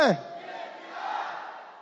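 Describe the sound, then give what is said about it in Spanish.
An audience shouts the word "identidad" loudly together in one sustained, dense roar of many voices lasting about two seconds, strong, right after a brief lone voice at the start. “Levanta la mano derecha y diga identidad. Más fuerte más fuerte, más fuerte, con más ganas, con más ganas, que se oiga, que se escuche”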